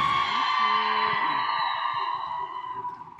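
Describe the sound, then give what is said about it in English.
A large theater audience at the Texas Theater in Oak Cliff, Texas, erupts in loud cheering and whooping, a dense roar of voices with high yells on top that gradually fades over a few seconds. “One more time, Texas Theater for Jessica Salgado.”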